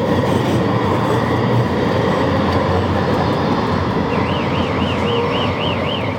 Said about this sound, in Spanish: Hostia, cómo suena ese coche.